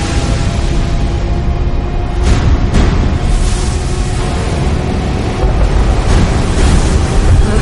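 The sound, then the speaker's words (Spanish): Large ocean waves surge toward a rescue boat at sea in a loud, continuous roar of rushing water and wind, with a couple of brief heavier crashes early on and no voices. “El encuadre se aleja del barco de rescate y muestra grandes olas que se le acercan.”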